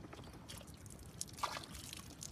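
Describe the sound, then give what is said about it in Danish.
Water splashes and trickles steadily, with small sloshing bursts and drips over a quiet, low rumble, as water runs out through a plankton net after 1000 litres of water were run through it. “Det vand, der pjasker ud, det er bare noget, der kommer igennem plankternettet.”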